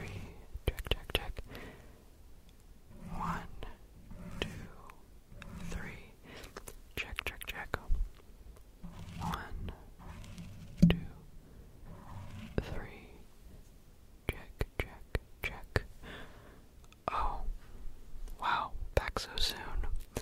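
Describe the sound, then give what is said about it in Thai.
A soft ASMR sound therapy sample from a young man's YouTube clip: someone whispers quietly while crisp little taps and rustles come and go in short bursts, all at a hushed, intimate level. “ฉันอยากให้คุณผู้ฟังเนี่ย ได้ลองฟังเสียงตัวอย่าง ว่าการบำบัดด้วยเสียงที่เด็กหนุ่มคนนี้ทำเนี่ย มันมีลักษณะเป็นอย่างไร ไปฟังกันค่ะ”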